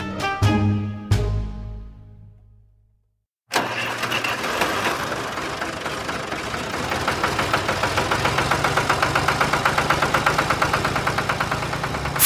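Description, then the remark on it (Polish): After a few ringing metallic strikes fade into silence, a tractor engine chugs steadily outside a window on a Saturday with a rough, rhythmic diesel knock. It is loud, runs on its own and holds a constant pace. “sobotę budzi mnie odgłos jakiegoś traktora.”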